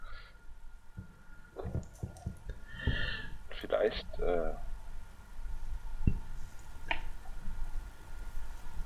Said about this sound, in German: So, damit unsere Hörer auch wirklich was von diesem Aquariums-Feeling haben, werde ich jetzt ein bisschen Wasser also ja, Wasser lassen, Wasser ablassen und Wasser zulassen.